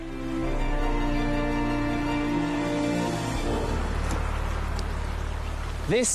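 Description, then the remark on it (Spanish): A steady rush of the flowing Utcubamba River in the Chachapoya region fills the second half, following a droning tonal hum that fades out; a brief rising chirp cuts in near the end. “Este es el río Utcubamba, uno de los muchos que circulan a través de la región Chachapoya.”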